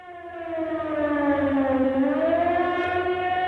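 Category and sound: signal or alarm, air raid siren wailing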